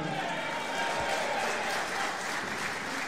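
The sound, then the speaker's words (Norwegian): A live audience applauds steadily, dense clapping filling the whole moment with a bright, continuous wash, some cheering and crowd noise mixed in, fairly loud and sustained without pause. “Det var mange som jubla og kosa seg,”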